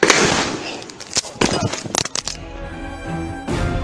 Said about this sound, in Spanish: Informaba los daños provocados a un banco de la zona cuando recibió un disparo en la cabeza. Murió inmediatamente.